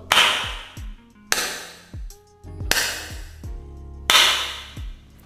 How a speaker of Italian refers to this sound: Per farvi sentire invece come risuona questa stanza... Quindi batti, prova a battere eh, io ho preparato prova a battere le mani adesso che farò sentire cosa intendiamo per riverbero. Batti, fai quattro colpi sì. di mani. Ok, questo è il riverbero.